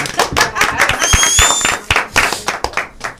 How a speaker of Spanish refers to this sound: Eh, señores, pero señores, que hay una estrella, mándole un aplauso.